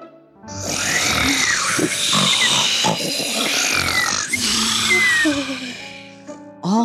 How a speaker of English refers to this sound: the children in Wonderful Town heard the snoring sound. They thought, Huh? Why does this thunder sound like my snore?